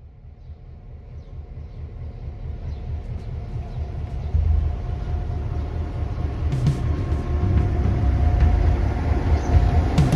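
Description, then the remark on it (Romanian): A freight train rumbles past on the rails, a heavy low roar that swells louder, with metallic squeals and rattling wagons over the steady drone. “Tocmai trece un tren de marfă.”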